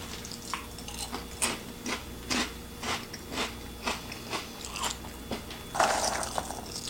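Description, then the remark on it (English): Crunching of crispy Lay's Poppables sea salt and vinegar potato snacks being chewed, a steady series of sharp, crackly bites about twice a second, with a louder burst of crunching near the end. No talking. “They are crunchy.”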